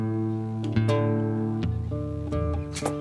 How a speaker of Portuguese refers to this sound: Todo mundo afinando ao mesmo tempo. Tá horroroso.